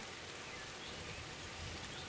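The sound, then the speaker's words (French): Steady rain pouring down outdoors during a thunderstorm, a dense continuous hiss of drops spread evenly across the whole stretch, heard through an open window with no voices. “bah, que je te faisais écouter la pluie et puis l'orage.”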